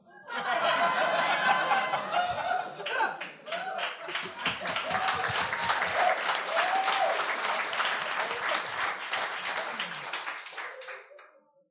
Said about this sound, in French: Encore un peu d'applaudissements, s'il vous plaît.